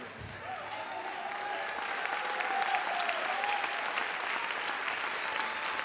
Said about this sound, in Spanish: ¿Cuánto pueden aplaudir pero con todo el corazón? Niños, adolescentes, no se le va a quebrar la mano al contrario.